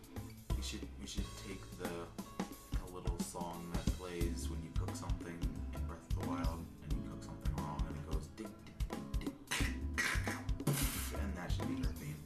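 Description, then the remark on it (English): A busy, loud musical theme punctuated by sharp breaking and shattering sound effects, with crashing bursts toward the end layered over the steady beat and melody. “That's your theme. Breaking the breaking. sound.”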